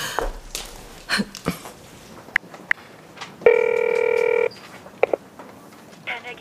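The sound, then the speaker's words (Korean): A phone number is tapped out in quick, short keypad beeps, followed by a steady, loud ringing tone lasting about a second, then a few more brief clicks and tones. The call is to a husband whose phone is switched off. “나는 비보를 알리기 위해 남편에게 전화했다. 전화기는 꺼져 있었다.”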